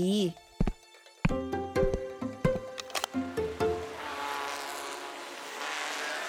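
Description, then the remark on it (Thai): Several car horns blare in quick, overlapping bursts in a traffic jam in Japan over a few seconds, then give way to a steady wash of traffic noise, with a voice faintly present. “ญี่ปุ่นก็รถติดแบบบ้านเราเหรอเนี่ย บีบแต่กันเก่งจัง มีอะไรหรือเปล่าคุณ สงสัยรถชนกันแน่เลย”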